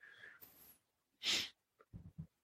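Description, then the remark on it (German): A loud, breathy puff of air blown out through the cheeks, preceded by soft breathing and followed by a few short, low huffs. “Defke blies die Luft hörbar durch die Backen und lehnte sich in seinen Stuhl zurück”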